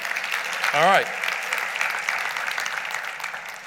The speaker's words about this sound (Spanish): Podemos detenernos unos segundos para honrar a aquel que entregó su vida por nosotros. Podemos darle un aplauso a Jesús.